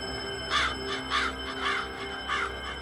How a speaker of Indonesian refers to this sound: Tapi aku terganggu sama suara burung gagak yang terus berkoak-koak di luar jendela kamarku.